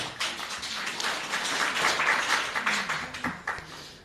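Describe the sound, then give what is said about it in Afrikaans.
A crowd applauds a reading for about four seconds, a dense, crackling wash of many hands clapping at steady volume, with a few sharper individual claps standing out near the end. “Ek dink ons kan gerus 'n bietjie applous gee vir daai voorlesing.”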